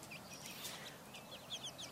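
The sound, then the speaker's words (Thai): Small chicks cheep in quick, high-pitched bursts, scattered across two seconds, as they run to the hen's feet and under her wings, with the hen's faint clucking underneath; no one speaks, just a soft background hiss. “สังเกตไหมครับ ลูกไก่วิ่งเข้าไป ในใกล้เท้าของคุณแม่ แล้วก็วิ่งเข้าไปใต้ปีก”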